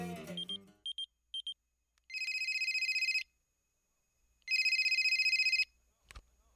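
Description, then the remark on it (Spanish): A few short beeps, then a telephone rings twice with loud, trilling electronic bursts about a second long, separated by a pause, before a sharp clunk at the end. “Oye, van como tres veces que te marco al viper y no contestas.”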